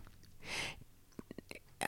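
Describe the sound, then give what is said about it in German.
A loud burp rumbles out for about a quarter second, followed by a few small mouth clicks and a short breathy puff near the end. “Also wie ja, viel, wie viel Rülpsen und so.”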